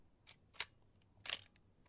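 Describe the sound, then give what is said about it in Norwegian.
Crisp mechanical clicks from a Nikon FE analog film camera shutter, two quick snaps followed by a longer ratcheting burst of the film winding, fairly quiet, with no voices. “Det her er lyden av et analogt kamera.”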